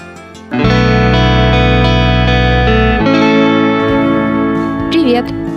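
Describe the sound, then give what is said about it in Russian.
Loud instrumental theme music starts after a brief pause, with sustained, effects-laden chords ringing steadily. The harmony shifts midway and the passage ends abruptly after about five seconds. “группе … за композицию …. Именно она звучит в подкасте.”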